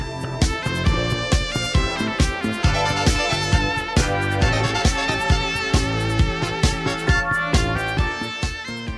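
Upbeat electronic music plays loud and close, with bright layered synthesizer tones over a steady, driving drum beat that keeps a regular rhythm throughout; no one speaks.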